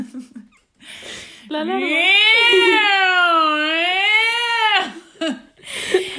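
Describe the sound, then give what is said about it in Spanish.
A voice imitates the fire alarm of a student residence with a loud, sustained wailing tone of about three seconds, its pitch wavering up and down, with brief speech before and after. “Y nada, pues saltaba una alarma de incendios que si no veías la de tu pasillo, habías la de al lado.”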